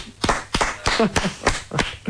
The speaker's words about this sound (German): meine Damen und Herren, Sie sind sehr klatschlustig, aber äh, lustig bleibt es auch ohne Klatschen.